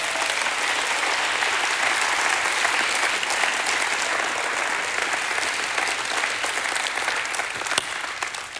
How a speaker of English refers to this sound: Can we one last time give God a hand clap of praise?